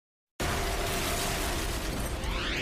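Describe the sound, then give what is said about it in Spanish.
After a brief silence, a sudden loud explosion in New York City erupts and rolls into a sustained, roaring rumble with crackling, shattering debris. It is intense, with no voices. “Una serie de explosiones desgarra la ciudad de Nueva York.”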